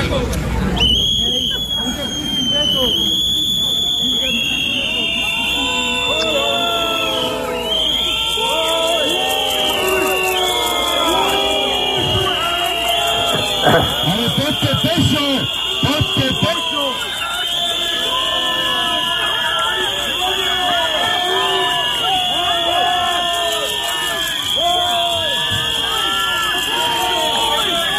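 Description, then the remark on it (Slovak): A large protest crowd at a barricade shouts and boos continuously as people leave, yelling in Slovak "fú, hamba, hamba, poďte pešo" (boo, shame, shame, go on foot), many voices overlapping in a loud, steady roar with sharper individual yells rising out of the din throughout. “Nie, to, to už odchádzali, to zase všetci kričali, fú, hamba, hamba, poďte pešo a tak.”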